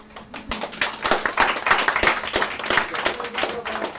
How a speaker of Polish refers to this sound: to jest nasz debiut, także brawa się przydadzą